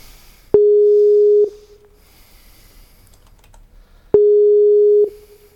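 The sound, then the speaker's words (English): The ringing tone of an outgoing Skype call from KJ Radio to a guest for a radio interview sounds twice, each a steady, clear beep lasting about a second, separated by a long quiet pause, with faint background clatter in between. “see if she'll pick up the phone”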